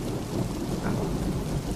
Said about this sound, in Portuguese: Nisso, dá um, um trovão que começa a iluminar, sabe? Em volta a terra, o chão, a água que você pisa. Eu acho é Isso, coisa? no segundo trovão que dá, você vê um reflexo, uma sombra.